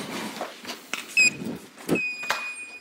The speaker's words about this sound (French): Et ça, c'est le son de mon badge. Ici, au bureau de Bornem, donnant accès à tous les secrets de BMW ne le dites à personne d'autre, s'il vous plaît.